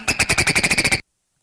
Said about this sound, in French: J'ai cherché. C'est une sorte d'oiseau qui s'appelle le dodo.